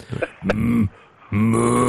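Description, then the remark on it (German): A person imitates a cow's moo with a short grunt followed by two low, drawn-out voiced tones, separated by a brief pause, fairly loud and without other talk. “so macht keine Kuh.”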